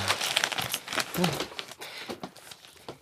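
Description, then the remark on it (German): A newspaper being crumpled, a continuous run of crisp, irregular crinkling and crackling bursts, fairly loud, with no one talking over it. “Wie unhandlich solch eine Zeitung doch ist.”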